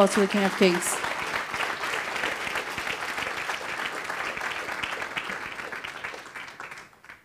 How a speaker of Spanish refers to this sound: Podemos darle ese fuerte aplauso al Rey de Reyes.